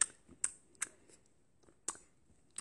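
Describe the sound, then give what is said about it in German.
Someone sucking and smacking on their own hair, making about six sharp, wet clicks and smacks at an irregular pace, with no talking. “Oh, okay, du versuchst an deinen Haaren zu luschen, was bei mir halt einfach zehnmal besser geht, wenn ich keinen Zopf trage.”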